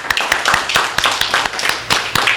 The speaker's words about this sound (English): I want to clap for you because you came. Thank you very much.